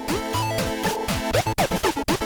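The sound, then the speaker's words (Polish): Synthesizer tones with a repeat effect that stutters, sliding pitches chopped into rapid choppy repetitions that grow more fragmented toward the end, loud with no voices. “Też powtórzenie tylko, że ze staterem.”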